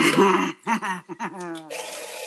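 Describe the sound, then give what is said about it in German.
A new coffee machine brewing: a loud burst of watery hissing and gurgling, a short stretch where a voice talks, then a steady steamy hiss resumes. “Das ist meine neue Kaffeemaschine.”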